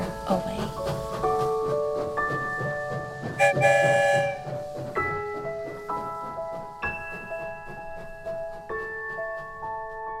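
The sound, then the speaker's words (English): The Go Kid Go story train pulls away from the station, its horn sounding a run of sustained, shifting tones over a steady low rumble, with a brief burst of hissing steam partway through. “All aboard the story train, find a comfy seat. We're about to leave the station, and you know what that means.”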